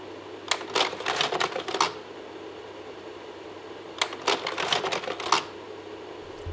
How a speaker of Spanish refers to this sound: De pronto es demasiado específico a mis recuerdos, pero a esto sonaba compartir recuerdos en mi familia. Es el sonido de un proyector de diapositivas pasando el carrusel.